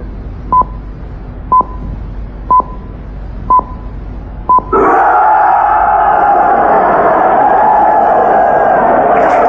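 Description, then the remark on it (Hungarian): Five short, evenly spaced, high-pitched radio time-signal beeps, one per second, mark midnight in a broadcast linked to Hegyeshalom, when a new passport decree takes effect. On the fifth beep, a loud crowd erupts into sustained cheering and shouting. “Az ötödik sípszónál itt az éjfél, és életbe lép az új útlevél rendelet.”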